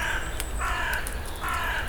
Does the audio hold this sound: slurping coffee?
no